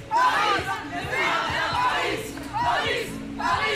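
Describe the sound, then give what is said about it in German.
Football fans of the German women's national team chant and sing together loudly at the team bus in Heerenveen, waiting for the players after a 2–0 win over the Netherlands that secured Olympic qualification. They sing "Paris!", with voices rising and falling in repeated rhythmic phrases and occasional shouts, steady and dense throughout. “und die Fans warteten anschließend am Bus auf die Spielerinnen und sangen.”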